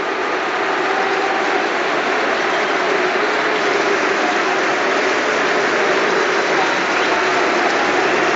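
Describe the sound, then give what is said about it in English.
A large stadium crowd at the Riverside booing and applauding together as players take the knee before a friendly, a dense, loud, unbroken roar of jeers and clapping that holds steady for the whole stretch. “Well, there are boos, but immediately applause.”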